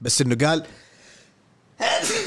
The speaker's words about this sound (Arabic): لاحظوا ان عطست هنا وعطست هنا